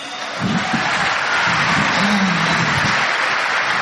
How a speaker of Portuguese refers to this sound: Então eu gostaria de apresentar para vocês essa trupe que não são os improváveis, mas são os imprestáveis. Por favor, que nós salve de palmas para eles.